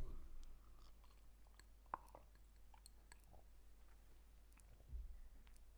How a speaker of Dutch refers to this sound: Oké, nog even een slokje van mijn thee.